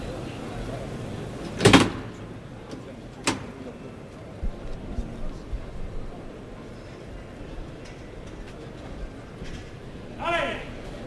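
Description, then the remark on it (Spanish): The heavy bolt of the bullpen gate at the bullring in Seville slides back with a sharp metallic clack as the gate is opened for the first bull of a bullfight, followed by a softer knock a moment later, against the steady murmur of a large outdoor crowd. “va a abrir la puerta de Toriles. Oímos ese cerrojo.”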